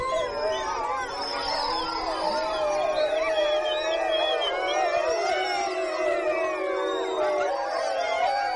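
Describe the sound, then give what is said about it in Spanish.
A pack of wolves howls together, many overlapping, sliding voices rising and falling in a dense, continuous chorus that fills the whole stretch at steady, moderate loudness. “Una manada de lobos aullando al unísono componen realmente una musicalidad que únicamente habrá podido ser superada por ese otro grande depredador que es el hombre.”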